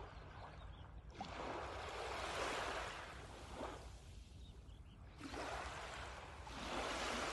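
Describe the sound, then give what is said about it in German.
Ocean waves wash onto the shore in slow, rolling surges, each broad rush of foamy hiss swelling up and then fading back before the next one arrives, with no voices. “Mit deiner Ausatmung zieht sich die Welle wieder zurück ins Meer und nimmt alles mit, was dir nicht mehr dient, was dich runterzieht negative Gedanken und Gefühle.”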